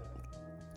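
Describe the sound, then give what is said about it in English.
A dog's claw clicks once on a new wooden floor, a single sharp tap near the end, heard over a steady low room hum with no talking. “that's my dog clicking clickety clacking in the background.”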